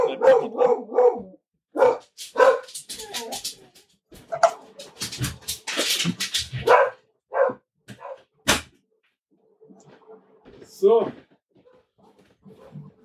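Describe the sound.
A dog barks excitedly in a rapid string of sharp yaps after someone rang the doorbell, then falls quiet and lets out a few more barks later on, with people talking in between.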